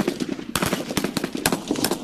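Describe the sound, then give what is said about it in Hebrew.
Rapid, loud gunfire crackles in close succession, a dense volley of sharp shots with a few heavier bursts, and no voices over it; shooting at first light in Yehud during a standoff with people barricaded in a house. “בעצם בשלב הזה הוא כן סיכן את מי שהיה שם, כולל ילדים, ובשלב הזה התחילו היריות.”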